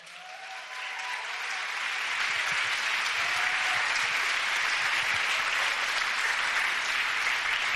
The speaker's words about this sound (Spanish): Vamos, si lo crees, dale un fuerte aplauso al Señor.